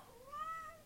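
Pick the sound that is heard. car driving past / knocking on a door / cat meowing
cat meowing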